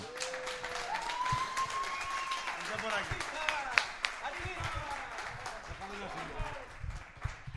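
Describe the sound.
A small group claps steadily for several seconds for a guest called up to speak, a dense patter of hand claps mixed with excited voices, and a rising whistle cuts through near the start.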